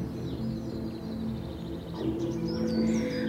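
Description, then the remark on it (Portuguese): Birds sing and chirp in quick, high trills over a steady, soft low tone, the calls continuing throughout. “Você vê borboletas, escuta o cantar dos pássaros, percebe o movimento de pequenos bichos que brincam no meio das relvas.”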